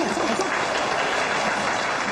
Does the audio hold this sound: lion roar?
no